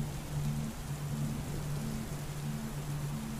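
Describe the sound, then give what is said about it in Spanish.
Steady, dense rain falls during a storm, hissing evenly throughout, a continuous wash of drops with no talking and no thunder, moderately loud. “Y cuando la tormenta termina, vuelve el silencio.”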